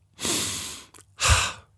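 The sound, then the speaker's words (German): A person draws a deep breath in through the nose, a long airy rush followed by a brief catch and a second strong breath, with no talking. “Dabei atmet sie tief ein.”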